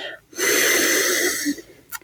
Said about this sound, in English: And as we always do, I would like us to start by taking a few breaths together, breathing in through our nose,